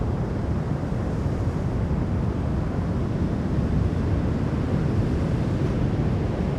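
A steady, heavy roar of ocean surf on a golden-sand beach near Bayonne in fog, October 2018: a constant low rumbling wash of waves 2-3 metres high, with a light offshore wind, no breaks or voices, fairly loud throughout.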